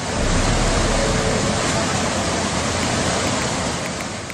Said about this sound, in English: And I guess the most popular or the most viral video that everyone's looking at was that video that shows Wong Tai Sin MTR station turning into sort of a waterfall.